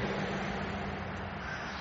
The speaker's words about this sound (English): All right, more traffic in the background.